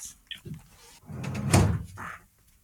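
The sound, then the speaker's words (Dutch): A door is pushed shut and lands with a single solid thump, preceded by brief shuffling and handle noise; faint voices murmur in the background. “Heel even, ik moet even de deur dicht.”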